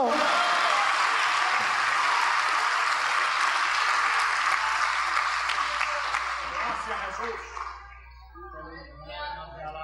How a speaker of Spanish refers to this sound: Denle un aplauso al Señor Jesucristo.